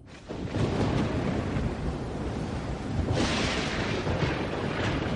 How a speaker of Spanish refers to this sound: hasta que estalló la tormenta en alta mar.